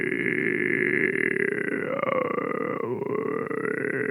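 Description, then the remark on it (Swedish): A voice imitates the creaking, malfunctioning sound of a CD player as a croak in the throat: a sustained, gravelly, rattling rasp lasting about four seconds, steady and fairly loud, with a slight dip in pitch near the end. “Utan ja, att det, är som att det knarrar i halsen bara.”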